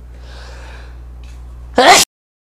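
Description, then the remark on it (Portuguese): A single loud, abrupt sneeze bursts out near the end, breathy and hissy and cut off sharply, following a stretch of quiet steady low hum with no talking. “Saúde.”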